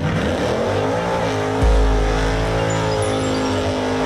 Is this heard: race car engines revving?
yes